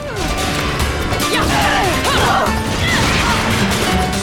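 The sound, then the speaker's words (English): Dense, loud video game combat sounds during a short demo fight: characters punching and kicking in a steady barrage, sharp thwacks and crashes layered over swooshing effects and a busy game soundtrack, with no talking. “They're punching and kicking.”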